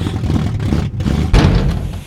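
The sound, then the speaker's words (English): A car engine sputters and rumbles unevenly, cuts out briefly, then lurches back with a loud, rough burst of noise, as if failing. “Ah, your shitty speech broke the car.”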